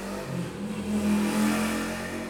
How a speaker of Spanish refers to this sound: yo creo que el de la moto fue a dar la vuelta y regresó. Por Dios bendito, cómo pueden ir encaramados en esas cosas.